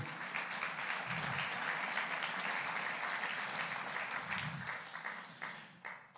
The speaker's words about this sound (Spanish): Den la ofrenda de palmas al Señor.